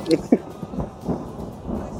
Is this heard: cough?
no